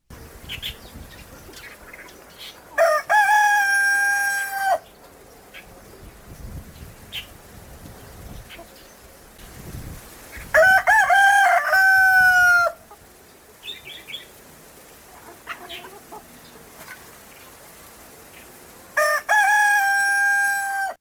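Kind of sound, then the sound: bird, rooster crowing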